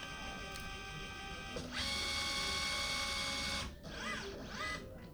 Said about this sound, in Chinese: 哎呀，刚才好像完整录到扫描的整个的声音了吧？